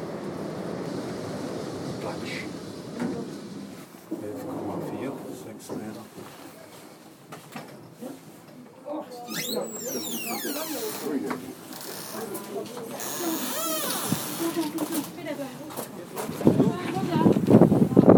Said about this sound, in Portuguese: Eu estou subindo de elevador e já tá ótimo. O elevador ó, tá correndo, esse barulho o barulho dele.